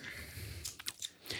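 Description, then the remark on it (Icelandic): Someone chewing a crunchy Easter egg at Easter, with a few quick, sharp crackling bites in the middle over a soft, steady mouth sound; fairly quiet and with no talking. “Já, borðið að þá svona kannski Bara rétt til að byrja með En það eru páskar”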